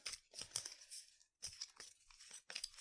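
A deck of playing cards being shuffled during a card game: three quick, papery riffling bursts, each about a second long, with brief pauses between them and no voices.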